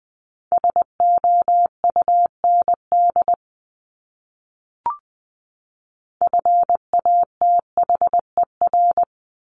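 A steady mid-pitched Morse code tone keys out dots and dashes of words at 20 words per minute in two bursts, separated by a silent pause with a single faint click between them.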